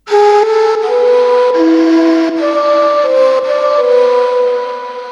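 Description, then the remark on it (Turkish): A breathy ney reed flute plays a slow melody of long sustained notes that glide between pitches, fairly loud, with no voices or other sounds alongside. “Prenses yine yıkanmaya gelmişti ve rüzgarda yine neyle kalbinin çektiği özleme ses verdi.”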